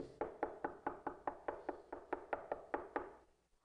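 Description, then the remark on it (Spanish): Someone knocks on a door in a quick, steady series of about fourteen sharp raps, clear, with no talking, the last knocks trailing off softly. “Dios va a llamar.”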